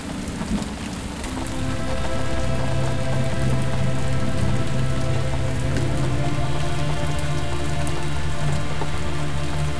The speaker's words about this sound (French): la douce odeur de la forêt est encore plus agréable avec la pluie qui tombe.